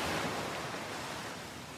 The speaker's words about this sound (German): Du hörst das sanfte Rauschen der Wellen, während sie über den Strand und deine Füße sanft hinüberrollen.